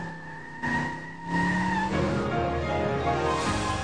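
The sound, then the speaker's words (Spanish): A car engine revs and pulls away in the rain as its tires squeal and skid, a loud burst that swells into a rushing roar lasting a few seconds, with no voices. “está lloviendo, nos vamos en carro. Mira, se fue solo.”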